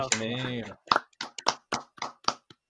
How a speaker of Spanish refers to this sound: Un, pues, aplauso, un aplauso